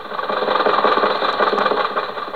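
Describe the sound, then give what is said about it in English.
A sound effect of an old car engine, likened to Jack Benny's Maxwell automobile, runs steadily: a loud, rapid, rattling chug that pulses evenly throughout with no voices over it. “Colman, would you say that sounds like Jack Benny's Maxwell?”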